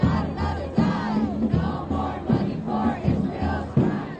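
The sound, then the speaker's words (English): A large crowd chants in unison at a pro-Palestinian protest march, demanding a ceasefire, in Park Slope, New York City, outside Senator Chuck Schumer's home. The voices rise and fall in a steady rhythmic cadence, loud, with repeated shouted phrases roughly every second. “Watching on over the weekend, large scale pro Palestinian marches here in the city, one of them in Park Slope yesterday outside Senator Schumer's home.”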